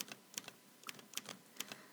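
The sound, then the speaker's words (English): Keys of an old-fashioned typewriter being struck one at a time in an uneven, unhurried rhythm: a string of sharp, dry clicks, fairly quiet, with no voices. “He is sitting in front of an old fashioned typewriter, tapping slowly one key at a time.”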